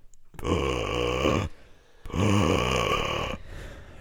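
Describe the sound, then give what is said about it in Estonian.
A voice imitates a helicopter rotor with a rough, throaty chopping drone, two sustained bursts of about a second each separated by a short pause, loud. “aga helikopter... ma teen sellist hästi tüütut häält, sellist lihtsalt häält nagu pabatukk.”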